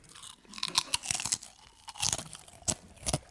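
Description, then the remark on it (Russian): Crisp, crackly crunching of potato chips being chewed, with a quick, irregular run of sharp bites and softer chewing between them, fairly quiet and with no talking. “А вот если такой подкаст записать, что мы весь подкаст едим чипсы, вы это слушаете.”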